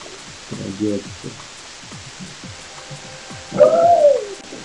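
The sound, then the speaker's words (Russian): A steady, even hiss of line noise on a video conference call runs through the whole recording, with brief bursts of indistinct voice rising above it now and then. “Вот все равно какое-то шипение осталось.”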